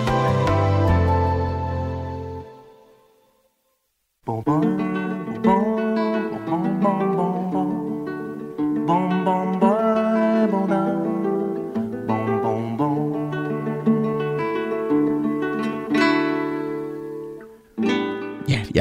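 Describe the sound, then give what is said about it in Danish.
A cheerful, melodic intro theme tune from a children's TV programme plays loud, with a brief silent break near the start before the bouncy instrumental tune resumes without any talking. “når jeg hører den her intromusik fra Bamses billedbog”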